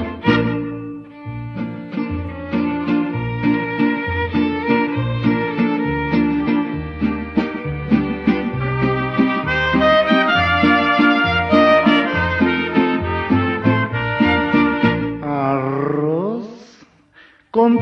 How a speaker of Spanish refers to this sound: O se escucha el cilindrero trovador